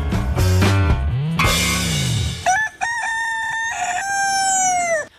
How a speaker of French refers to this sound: Kikeriki, c'est le son du coq d'après les allemandes.